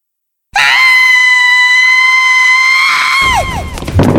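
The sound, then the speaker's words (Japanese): A loud, sustained high-pitched scream from a girl in a classroom after she takes her finger off a 10-yen coin in fear, holding steady for nearly three seconds before breaking off with a downward waver, followed by brief noisy rustling as she runs out of the classroom. “絶叫したかと思うとものすごいスピードで教室の外へと走り去ってしまった”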